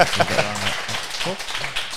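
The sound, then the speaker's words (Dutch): A live audience applauds a guest who has just sat down, a steady hiss of many hands clapping, while voices talk and exclaim over it throughout. “Ik vind ook wel dat je een applaus verdient hè, oh.”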